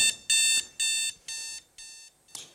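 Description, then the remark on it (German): An alarm clock rings in five loud, evenly spaced electronic bursts with short gaps between them, the later bursts slightly softer, ending in a brief fuzzy sound. No one speaks. “Der Wecker, oh meine Güte, es ist morgen.”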